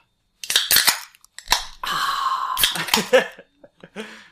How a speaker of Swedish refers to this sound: Så vi är tillbaks med eh, japansk starköl och eh, umeshu i shotsglas. Mm. Och vi väntade med öppna ölen för att det, det vackra ljudet av...